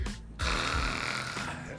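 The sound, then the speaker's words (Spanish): A voice imitates loud snoring: a short breathy pull followed by a long, rough, rattling snore that drags on for over a second, harsh. “Ronque y ronque, güey.”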